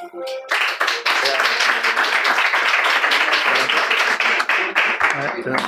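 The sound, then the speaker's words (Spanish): At a Remax event, an audience welcomes the speakers of a talk on General Patton. After a brief pause it breaks into loud, dense applause, many hands clapping in a steady, crackling wash that holds its strength for about five seconds before easing slightly at the end. “Ellos nos van a contar mucho más y si le damos un aplauso.”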